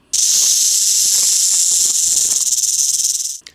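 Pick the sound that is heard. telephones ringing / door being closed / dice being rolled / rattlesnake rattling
rattlesnake rattling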